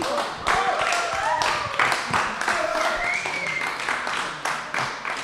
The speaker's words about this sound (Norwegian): Tusen hjertelig takk til at dere kunne komme hit eh, på Chagall. Eh, Tone Knapstad og Sara Jonassen, en stor applaus.